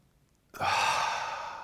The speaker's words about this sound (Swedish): Man slappnar av i magen, man andas in djupt fyra sekunder ungefär genom näsan